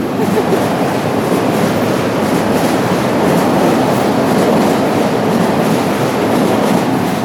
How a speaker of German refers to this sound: Genau, und das sind die Züge, die, die, ähm, die Pendlerzüge, die halt rausgefahren waren und jetzt wieder ja. zurückkommen.